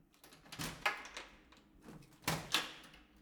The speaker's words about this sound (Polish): Wychodzisz na korytarz. Stoisz przed drzwiami do mieszkania. Otwórz je.